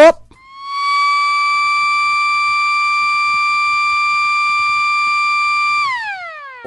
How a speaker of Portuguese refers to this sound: Mete aí a nossa corneta pra gente terminar o programa